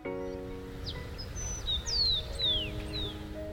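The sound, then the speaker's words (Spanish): Birds sing in a series of high, sweeping chirps and whistles, some sliding downward, over a steady low droning tone with no one talking. “Y mi abuela dice que cuando los pájaros cantan mucho, mi tía está entre ellos, porque a ella no le paraba el pico.”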